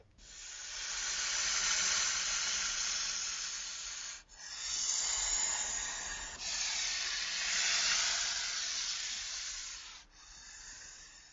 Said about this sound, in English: Snakes hiss.